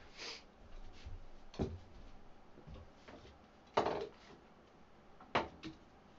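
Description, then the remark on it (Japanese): An empty metal can held in the hand is struck with sticks: four sharp, ringing hits at uneven intervals, with a few softer taps between, fairly quiet overall and without any voices. “これね実はあの大発見でこれ手に持ってる缶をさらに持ち帰ることでもっといろんな印象を出すことができるんですね。”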